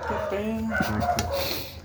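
Several dogs from the private residential street fight in a yard, yelping, whining and barking in a frantic overlapping tangle, fairly loud throughout the brief moment.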